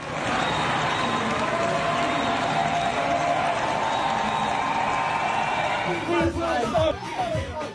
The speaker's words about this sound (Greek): Στο σιδηροδρομικό σταθμό του Λίβερπουλ, οι διαδηλωτέ έχουν εισβάλει στο χώρο και πραγματοποιούν καθιστική διαμαρτυρία. Φωνάζουν υπέρ τη κατάπαυση του πυρό στη Γάζα.